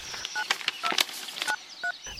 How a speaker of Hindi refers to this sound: मैंने तुरंत वो कागज ढूंढा और उस नंबर पर कॉल किया